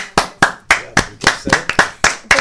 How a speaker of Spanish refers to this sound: me gusta aplaudir?